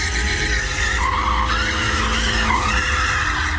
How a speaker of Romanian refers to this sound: Nu știu, doamne, ce aici se fac cerculețe, drifturi.